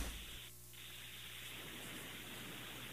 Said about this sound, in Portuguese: Olha, eu, ficou com uma interferência, eu não consegui entender a pergunta.